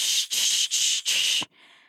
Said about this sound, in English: Is it a bit like when you're in a in a car that has a, a you know an analog radio and you're switching the dial and you're hearing static